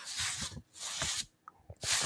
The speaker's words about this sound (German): Man kann hören, es ist eine 5 ein Viertel Disc und es ist ein C64 Spiel. Das ist jetzt audiophiles Unboxing.